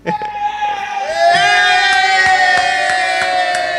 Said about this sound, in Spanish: No sé qué aplauden, no sé qué aplauden.